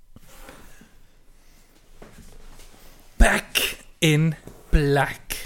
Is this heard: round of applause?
no